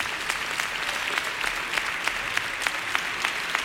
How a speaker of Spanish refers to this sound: Continúan los aplausos a estas dos niñas que han leído un poema sobre la paz y este Andalucía de Manuel Machado.